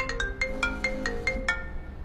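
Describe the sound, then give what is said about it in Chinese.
A phone ringtone plays a quick, bright electronic melody of about eight plinking notes over a steady lower tone, fairly loud, with no one talking; it is an incoming call from Mr. Wei (Wei Zong). “嗯，魏总电话。”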